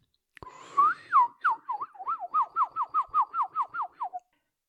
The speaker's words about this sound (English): Oh, such beautiful flowers everywhere in the woods. And do you hear the birdies sing? Oh, so nice.